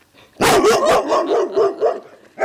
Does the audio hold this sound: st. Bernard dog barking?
yes